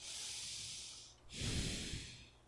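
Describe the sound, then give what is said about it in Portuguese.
A slow, deep breath, demonstrated: a long airy inhale, a brief pause, then a fuller, heavier exhale with a rougher, breathier low rush. No talking. “No sentido de que Deus irado ele respira profundamente.”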